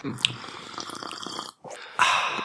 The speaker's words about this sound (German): Könntest du die Cola anders trinken, bitte? Das irritiert die Leute.